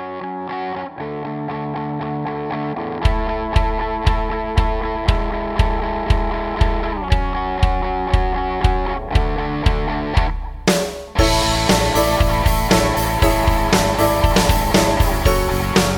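A pop punk song's instrumental intro: a distorted guitar chord pattern, then a steady driving drum beat enters, and the full loud band with crashing cymbals bursts in near the end. No singing.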